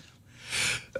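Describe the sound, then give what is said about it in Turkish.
A single sneeze on air during a broadcast, the microphone left on: a faint breath in, then a sudden loud, hissy burst lasting a fraction of a second, ending with a short voiced catch. “Yayında hapşurasınız gelince ne yapıyorsunuz? Hapşuruyoruz.”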